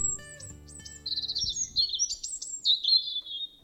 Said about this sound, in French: Elle leva la tête et aperçut un petit oiseau à la gorge rouge qui virevoltait dans les airs autour d'elle. Il chantait, chantait encore sans s'arrêter.